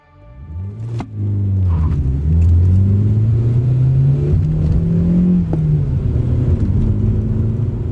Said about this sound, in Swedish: Foten pressade hårdare på gasen trots att pedalen redan var fastklistrad mot golvet. Fartmätaren tickade uppåt